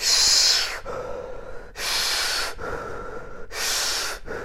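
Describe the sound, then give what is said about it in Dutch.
Deep, deliberate breaths of a seated person doing a conscious breathing exercise, drawn in and pushed out in a steady rhythm, with three strong airy inhales alternating with softer exhales and no talking. “Nog wel, maar als je dan met je ademhaling echt heel bewust 30, 40 keer.”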